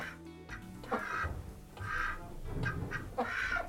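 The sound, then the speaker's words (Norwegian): Ducks on a farm quack repeatedly in a steady series of nasal, raspy calls, clear, with a low rumble of background noise and no one speaking. “Og nå driver vi med villsau, par hester, ender, gjess gås.”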